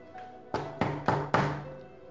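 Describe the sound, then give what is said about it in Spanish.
Four firm knocks on a wooden front door, evenly spaced in a quick steady rhythm, fairly loud, with a faint background hum and no voices. “Oyó que Rojo golpeaba.”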